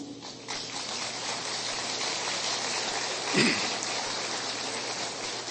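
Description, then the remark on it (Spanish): An audience applauds in a dense, steady wash of clapping that holds at an even, fairly loud level for several seconds, with no voices over it. “Eso merece un aplauso, ¿no?”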